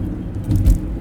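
A car moving through traffic, heard as a steady low engine and road rumble that swells briefly toward the middle of the second before settling again, with no voices.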